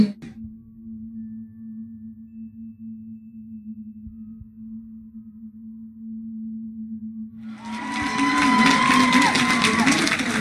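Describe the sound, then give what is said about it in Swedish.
A steady low hum runs for several seconds, then the crowd at the Moderates' election night party in Sweden suddenly erupts into loud, sustained cheering and whooping, as the count shifts to a lead for Kristersson's side, carrying on to the end. “utbrutit ett stort jubel här nere på Moderaternas valvaka när det alldeles nyligen skiftade och det blev en ledning för lag Kristersson.”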